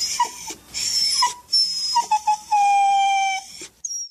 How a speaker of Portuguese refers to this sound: Então, chegou ao pé da cama e, como queria subir e não podia porque a cama era alta, pôs-se outra vez a ganir.